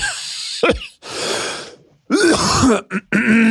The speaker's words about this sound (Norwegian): Det er liksom akkurat som en sånn tørrhoste. Det er sånn det blir tørt i mm. hersen, og så bare